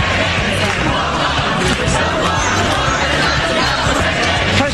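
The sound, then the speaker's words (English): A loud, agitated crowd at a Las Vegas city council meeting shouts and yells together as the council approves a measure making it illegal to camp or sleep on streets and sidewalks, a continuous roar of overlapping voices, with no single speaker standing out, sustained throughout. “At the city council approving the measure in front of a fired up crowd.”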